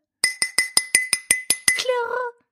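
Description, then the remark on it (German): Nine quick, evenly spaced clinks of glass ring out bright, each with a short shimmering tail, followed by a brief voiced sound as the tapping stops. “Klirr.”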